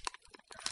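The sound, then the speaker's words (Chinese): Adhesive tape being ripped off a wall in a corridor in a short, crackly tear of uneven sticky pops and rasps, fairly quiet and heard on its own without any voices. “那是，那是撕胶带的声音，不知道是什么东西把墙上的胶带撕下来了。”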